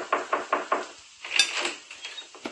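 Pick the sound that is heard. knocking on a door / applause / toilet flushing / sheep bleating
knocking on a door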